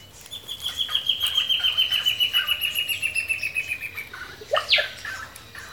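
A bird's call of the ash-breasted antbird, heard while birding along the edges of a river: a long, steady series of rapid, high whistled notes slowly descending in pitch, followed by a brief sharper note, heard clearly against a faint ambient background.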